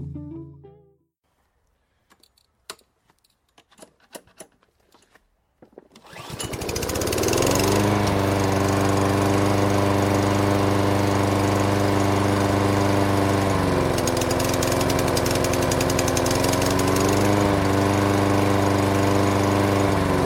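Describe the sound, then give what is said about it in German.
A new lawn mower, bought about two months ago, starts after some clicks and rattles in a garden, then runs loud and steady with a constant droning hum, its pitch dipping briefly before settling again. “Ah, ich habe mir vor, na, ungefähr, glaube ich, zwei Monaten einen neuen Rasenmäher gekauft. Habt ihr gerade gehört?”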